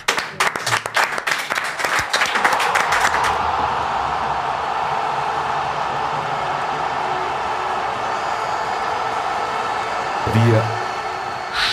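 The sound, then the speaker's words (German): A crowd breaks into applause as a participant comes forward to the microphone for a game, sharp overlapping claps for about three seconds that soften into a steady, dense wash of clapping and cheering noise, with brief voices and a swell near the end. “Und ich sag mal Applaus und wir machen das Mikro fertig.”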